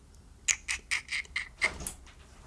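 A door being opened by the speaker's youngest brother, heard as a quick run of about six short, high squeaky clicks over a second or so, fairly quiet, with no one talking.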